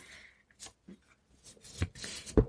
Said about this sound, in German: Also ich raschel jetzt nicht, auch wenn mir das so viel Spaß macht. Moment. Ich mache es etwas weiter weg. Genau.